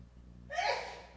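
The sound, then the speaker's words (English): A single sneeze bursts out after a brief quiet moment, a sharp breathy blast that fades over about half a second, heard at moderate loudness with no talking. “And this one God bless you, is the key.”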